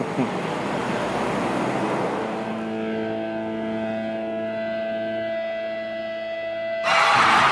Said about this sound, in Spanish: ¿Por qué los aplausos si estamos terminando, papanata?